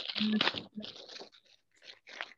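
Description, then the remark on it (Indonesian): A small honey packet being torn open: a loud crinkly rip followed by several shorter, scratchy tearing bursts in an uneven rhythm, growing fainter, with no talking. “Aku buka yang ini dulu. madu. Sobek aja.”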